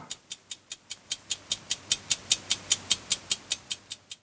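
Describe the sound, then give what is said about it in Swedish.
A clock ticks steadily and quickly, about five crisp, evenly spaced ticks per second, alone with no voices and a faint low hum beneath. “Och Andreas går där och sparkar och svär och, och så hör vi klockan ticka och så säger vår tredje huvudperson, Ingmar Bergman.”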